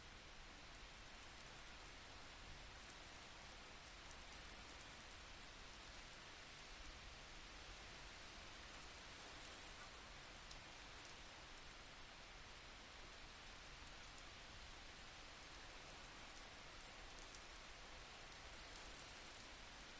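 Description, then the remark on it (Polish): Steady rain falls for the whole stretch, a soft, even hiss with faint patter that sounds somewhat distant. No voices, and the level never rises or breaks. “Wdech wsłuchaj się w otulające dźwięki deszczu, który jest gdzieś daleko od ciebie.”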